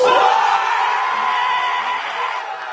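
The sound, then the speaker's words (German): RC Lens teammates cheer and shout loudly as Jonathan Clauss learns Didier Deschamps has called him up to the French national team for the first time, a dense, sustained roar of excited voices with whoops and yells running through the whole stretch. “Also großer, großer Jubel. Die Mannschaftskollegen freuen sich unglaublich mit ihm.”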